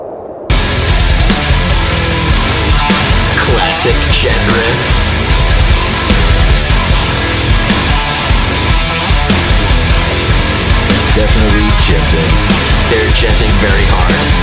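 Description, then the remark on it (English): Loud, dense heavy metal music from a metal band's official music video kicks in after a brief quiet moment, with distorted guitars and rapid pounding drums playing continuously at full volume, no talking over it. “All right, let's put on …. Yeah, that's a that's an official video.”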